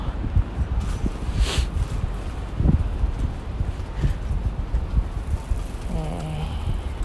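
Strong wind buffets the microphone in a steady low rumble with gusty surges, drowning out faint background street noise throughout, in Asakusa.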